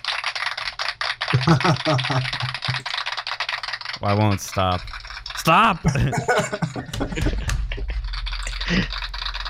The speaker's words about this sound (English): Stop clapping! okay, it stopped.